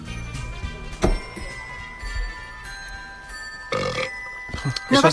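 A loud, drawn-out burp in a scene from the Christmas film Noche de Paz rumbles over soft background music with ringing, bell-like tones, followed by a couple of shorter guttural bursts near the end.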